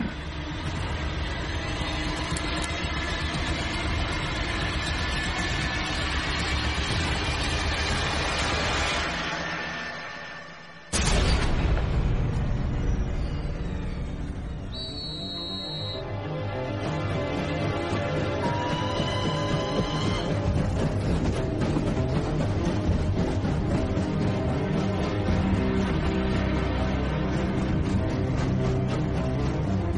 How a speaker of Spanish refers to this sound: las memorias de Pinkerton apenas se habla de lo que le pasó por la mente cuando escuchó ese silbato y el tren se puso en marcha.